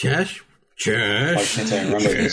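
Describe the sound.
A voice mimics the Windows fatal error sound, singing a short burst, pausing briefly, then two more tuneful syllables with gliding pitch, fairly loud.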